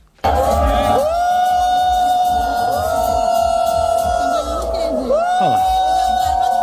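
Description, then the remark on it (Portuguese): A huge stadium crowd boos loudly and steadily, a dense roar of voices with sustained sliding jeers and whistles rising over it, filling the whole stretch without a break. “Vaias.”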